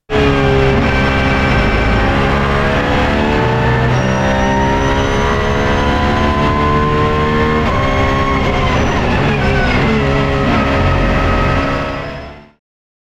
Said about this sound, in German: Und du konntest auf der berühmten Strecke von Laguna Seca die ersten Kilometer mit dem Wagen zurücklegen und da hören wir jetzt mal rein.